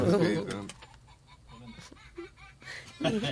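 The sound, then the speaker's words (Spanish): A Happy Peel toy doll switches on inside a handbag, giving off muffled, chirpy, bird-like squeaks and clucks in short bursts while people talk. “Es un muñequito, Un muñequito que se me prende.”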